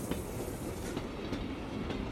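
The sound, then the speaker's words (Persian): A train rolls steadily past, its heavy low rumble broken by recurring clickety-clack beats of wheels crossing rail joints, loud, with no voices. “دیشب دیشب خواب دیدم توی ایستگاه قطار خیلی بزرگی بودم صدها قطار به سمت مقصدشون میرفتن و من بدون مقصد گم شده بودم”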